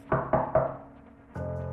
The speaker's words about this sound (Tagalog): Hanggang sa makarinig na ako ng tatlong magkakasunod na mahinang katok galing sa likod bahay.